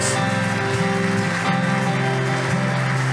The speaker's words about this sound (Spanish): ¿Por qué no le das un aplauso fuerte a Dios?